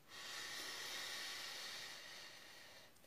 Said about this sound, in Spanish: Y entonces Aquí vas a tomar una inhalación y repetir el mantra tres veces. Sin respirar. No, tomas una respiración primero. Y después cantas el mantra tres veces y después volvés a respirar.